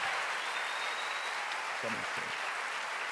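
A church audience applauds a pastor in a steady, dense wash of clapping that holds at an even level throughout, with a brief voice or shout rising faintly from the crowd partway through.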